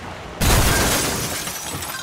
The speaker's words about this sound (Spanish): El sonido del choque fue como una explosión. Pedazos de vidrio y sangre volaban a mi alrededor, al mismo tiempo que mi cabeza golpeaba el techo, luego los asientos, la puerta y, por último, el mundo dejó de girar.